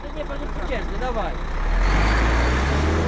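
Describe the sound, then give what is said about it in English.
Five heavy trucks rumble past as protesters let them through a blockade at the Dorohusk border crossing in Poland just after 9 p.m., their deep engine drone swelling louder halfway through and holding steady, while indistinct voices murmur faintly at the start. “It's just after 9 p.m., and he and two other Polish protesters are finally allowing five trucks to pass their blockade.”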